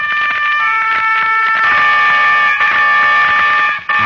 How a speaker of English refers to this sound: And over the scene comes the sound of a distant horn.